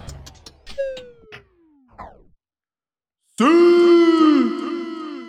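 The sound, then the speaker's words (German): A few quick clicks and a falling, boing-like glide, then a short pause before a man bellows a loud, drawn-out celebratory shout, imitating Cristiano Ronaldo's signature goal cheer, wavering for about two seconds. “Diesen Signature-Jubel von Cristiano Ronaldo hätte man gestern hören können, wenn er denn was zum Jubeln gehabt hätte.”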